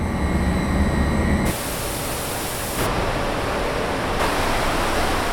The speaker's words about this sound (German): Was ich gerade recht schnell muss lernen muss, Abwasser reinigen macht offenbar ziemlich viel Lärm.